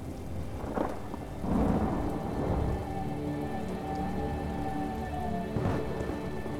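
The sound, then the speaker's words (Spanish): Steady rain pours down while low thunder rumbles repeatedly, swelling in a few heavy rolls against the constant hiss of a storm. “cada tormenta es una forma de experimentar tu propia existencia como naturaleza.”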